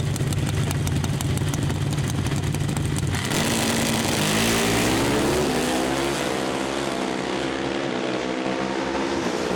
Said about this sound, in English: But now, first, let's listen to the call and the run in Pro Stock Motorcycle.